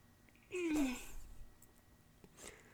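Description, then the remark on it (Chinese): A grandfather with a long-standing allergy sneezes once loudly, a sharp noisy blast with a voiced, downward-sliding tail lasting about half a second, followed by quiet and a faint rustle later. “这时候，他突然打了一个巴哈喷嚏，就……”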